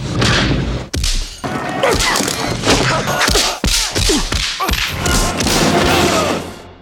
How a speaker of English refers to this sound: Considering these punching sounds